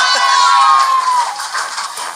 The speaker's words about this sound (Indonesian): Itu ya, tepuk tangan harus itu.